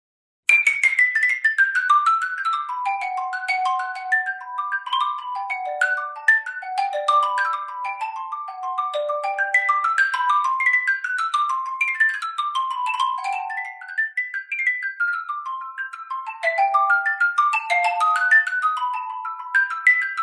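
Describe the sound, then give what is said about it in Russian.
A xylophone plays a violin solo part: a fast, virtuosic melody of rapid cascading runs, bright struck notes tumbling downward again and again, loud for about twenty seconds with no voices. “Бывают, конечно, соло написанные специально для ксилофона, но чаще это мы вот играем скрипичную.”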